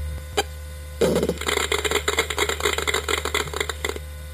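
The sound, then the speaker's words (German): A lone click, then about three seconds of rapid, crackly buzzing pulses from a PC speaker over a steady low hum: a crude computer sound effect of a golf ball dropping into the hole. “Und danach wird der Ball eingelocht.”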